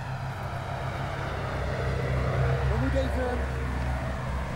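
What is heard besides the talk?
tractor driving past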